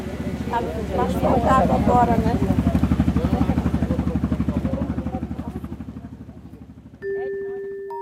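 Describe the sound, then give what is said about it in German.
The engine of the old ship João Bruno II chugs with a deep, rapid, steady throb that slowly fades as the ship leaves the harbor in pouring rain, then a steady tonal blast like a horn sounds near the end. “Im strömenden Regen verlässt das Schiff den Hafen.”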